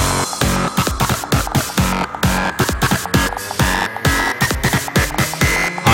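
Loud, heavily distorted electronic music pounds away with dense, gritty synths and steady punchy drum hits, filling the whole mix without any voices.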